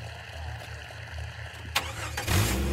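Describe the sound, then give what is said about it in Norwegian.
A jeep engine cranks and catches around the midpoint, then settles into a loud, rumbling idle with a rising rev, with no voices, as a man jumps into the jeep to drive out onto the road. “Han slenger seg i bilen, det er en ren refleks. Olav kjører ut på veien”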